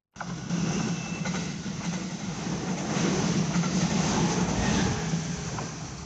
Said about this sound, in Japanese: まずはね JR 普通名古屋方面の電車の音